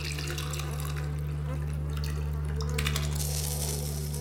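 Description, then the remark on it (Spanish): Liquid pours and splashes steadily for a few seconds, with a continuous low electrical hum running underneath and no one speaking. “Vinagre. Tírale todo. Toma. Esto es agua bendita. Tienes que regarlo en forma de cruz.”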